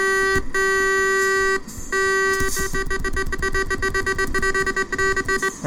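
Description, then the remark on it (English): A loud truck horn blares in a long, steady, buzzy blast, cuts off briefly, then returns as a rapid string of choppy, stuttering honks. No one speaks. “Oh uh, yeah, good normal sounding horn there.”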